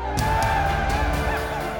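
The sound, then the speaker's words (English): A crowd of villagers gathered around a whale cheers and whoops together as a chief makes the first slice into its flesh with a bone knife, a dense, steady swell of many overlapping voices, holding at the same loudness for the whole couple of seconds. “He made the first slice into the whale's flesh, prompting a cheer from the surrounding villagers.”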